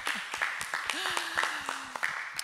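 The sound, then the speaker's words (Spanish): Scattered clapping from a small group, irregular sharp claps, with a faint voice murmuring underneath, during a live Sunday broadcast from a virtual lobby. “Hoy es domingo y estamos aquí en casita, en nuestro lobby virtual, en vivo, que merece un fuerte aplauso por eso en este día.”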